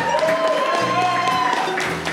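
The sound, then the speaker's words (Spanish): A short burst of scattered applause from a comedy show audience after a joke, a steady patter of clapping that holds the same loudness throughout, with voices talking and murmuring over it. “No escuché un aplauso, ¿verdad?”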